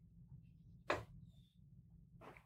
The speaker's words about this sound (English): Why, why, are my neighbors still shooting off fireworks on July seventh? I don't know if you could hear that or not, but.